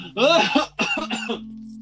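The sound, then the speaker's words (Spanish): A loud fit of coughing: two harsh, raspy bursts in quick succession, the second broken into short hacking coughs, then quiet. “Lo siento la coronavirus!”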